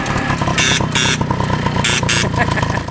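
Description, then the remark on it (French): A vintage moped's hoarse, raspy horn honks four times in two quick pairs, loud and buzzy over the steady drone of the moped's running engine as it rides at 45 km/h. “Ah, le klaxon, il marche un peu comme la, vitesse de la mob. Il a un peu la voix enrouée.”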